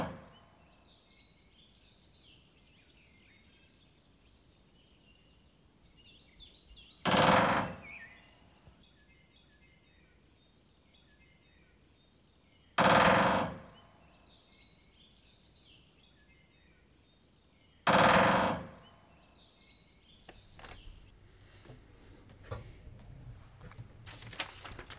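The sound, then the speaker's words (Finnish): A great spotted woodpecker drums on a metal roof: three loud, brief, rattling rolls several seconds apart, with small birds chirping and twittering softly throughout. “Joo, ja todennäköisesti, olisiko käpytikka äänessä ilmeisesti vai?”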